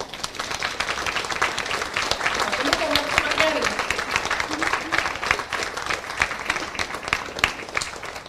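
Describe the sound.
A crowd claps steadily and warmly for a guest being introduced, a dense, sustained burst of applause that stays loud throughout, with a faint voice or cheer briefly rising under the clapping midway.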